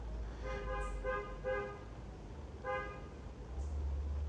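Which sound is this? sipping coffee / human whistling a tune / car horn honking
car horn honking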